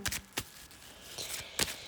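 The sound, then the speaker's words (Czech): Tarot cards being shuffled, a handful of soft, crisp flicks and slaps at irregular intervals, quiet overall with no voices. “A já už se dívám na vaši fotku, míchám u toho karty a my se spolu podíváme”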